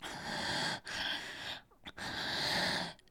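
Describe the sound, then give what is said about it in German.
Heavy, rasping breaths, three long noisy pulls of air separated by brief pauses, loud and breathy with no talking, added by a German dubbing voice to the end of a film scene. “Und die deutsche Synchronstimme hat dem dann noch bis zum Ende der Szene ein paar Sekunden langes Atmen hinzugefügt”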